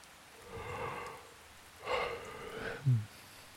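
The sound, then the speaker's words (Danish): Steady rain hisses softly throughout, a calm, continuous patter with no voices, broken near the end by a couple of brief, louder breathy bursts. “Lyden af den rolige regn gør Geo helt træt.”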